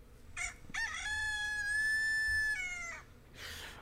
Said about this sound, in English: the morning is great things are beautiful it is a new day a new era it gets a morning rooster